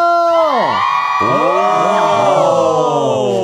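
A crowd of a band's fans outside shouts and cheers loudly for several seconds, a dense wall of high-pitched screaming voices that briefly dips in pitch before surging back up and holding steady.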